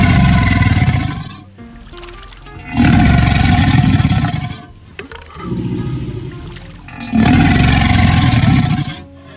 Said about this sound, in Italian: adesso si dovrebbe essere sentito il suono del coccodrillo che l'ho fatto partire con una magia di montaggio.